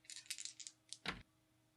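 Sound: dice being rolled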